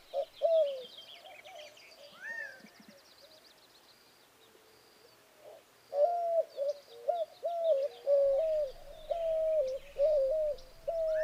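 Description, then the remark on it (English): White-winged doves call in repeated hooting coos, a short phrase early on and then a steady run of rhythmic coos, with small birds chittering faintly in the background. “I looked up into the trees and the utility pole tops where I usually see the hawks, listened for their distinctive calls, but heard only the drone of bees, the chittering of small birds, and the calls of the white winged doves.”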